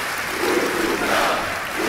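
A large auditorium audience at the Centro de Congressos do Estoril, fully on its feet, applauds and cheers Paulo Portas together, a dense, continuous roar of clapping and shouting that stays loud and steady throughout with no pauses.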